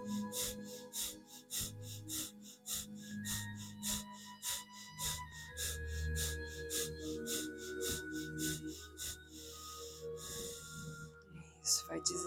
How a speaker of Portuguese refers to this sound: Para isso, vamos acelerar um pouquinho nossa respiração ficando mais curta e rápida, nutrindo nosso fogo com a nossa respiração. Sinta o seu abdômen para dentro e para fora enquanto você respira.